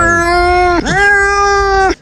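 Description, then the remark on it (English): A cat lets out two long, drawn-out meows back to back, loud, each a sustained wailing tone that dips and rises, during a thunderstorm, with no one speaking. “That's my cat meowing during the uh, thunder that came the other day.”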